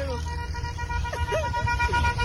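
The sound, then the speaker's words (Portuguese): Car horns blare in a long, steady honk that holds through the whole moment, loud, with a busy street rumble and faint voices mixed underneath, honking for the mayor of Imperatriz in Grajaú, Brazil. “Aí, tá buzinada aí! tá buzinada!”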